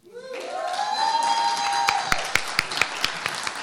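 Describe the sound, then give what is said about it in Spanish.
An audience bursts into applause for a pop folk singer, a dense roar of clapping mixed with cheers and a sustained whistle-like cry, with a few sharp, distinct claps standing out toward the end. “Gracias por su caluroso aplauso”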